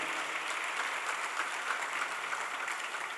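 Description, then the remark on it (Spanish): A church audience applauding for the Lord during a service, a dense, steady wash of many hands clapping at once, sustained at an even level throughout with no voices standing out. “Dale otro aplauso al Señor porque Él es bueno, su misericordia es para siempre.”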